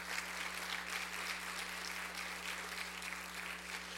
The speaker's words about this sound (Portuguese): Você podia aplaudir o Senhor Jesus nesse momento.